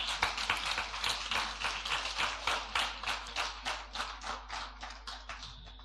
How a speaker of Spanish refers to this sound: Aplauda su nombre.